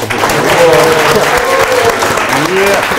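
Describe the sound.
An audience at a show with stand-up comedians and a theoretical physicist, about to discuss the quantum world, claps steadily for about three seconds, a dense, loud wash of hand claps with a few voices calling out over it.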